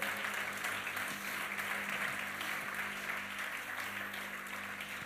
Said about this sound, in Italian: Diamo un applauso al Signore.